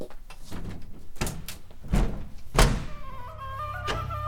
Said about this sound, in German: zerwühlte das Bett und öffnete das Fenster.